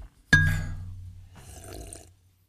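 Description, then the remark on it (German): A single sharp clink of a glass of water rings out and slowly fades, followed by a soft, sloshing rush of the water moving in the glass. No one speaks. “Uh, ein Glas Wasser.”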